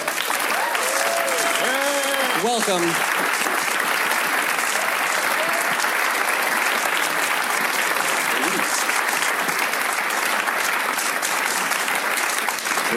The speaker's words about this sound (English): Please give a round of applause to Tom Schnauz, Jenny Hutchison, and Gordon Smith.